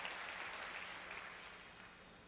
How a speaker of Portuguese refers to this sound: Dê mais um aplauso lindo a Jesus e tome seu assento.